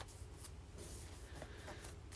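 A hand rubs back and forth across notebook paper, comparing Campus and Continue Plus notebooks, making a soft, continuous dry swishing with a few slightly louder strokes. No one speaks.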